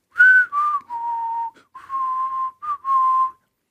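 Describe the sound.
Someone whistles a short tune alone, a series of clear sustained notes stepping down and back up with brief gaps between phrases, fairly loud.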